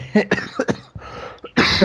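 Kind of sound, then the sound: human body sound, coughing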